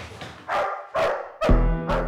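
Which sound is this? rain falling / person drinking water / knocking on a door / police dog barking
police dog barking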